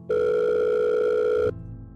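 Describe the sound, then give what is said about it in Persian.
A steady, loud telephone dial tone hums for about a second and a half as a call to a father is placed with a phone card, then cuts off abruptly, leaving faint low background noise. “و از ماشین پیاده شدم و رفتم از دکه اون بر خیابون یه کارت تلفن و یه پاکت سیگار خریدم زنگ زدم به بابا”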